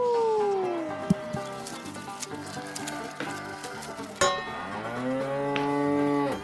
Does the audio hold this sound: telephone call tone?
no